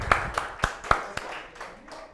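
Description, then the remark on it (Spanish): A group claps to welcome a first-time attendee at a study session, with about five steady, evenly spaced claps that then trail off into a softer patter. The clapping is moderately loud, with no talking. “Vamos a darle un aplauso de bienvenida”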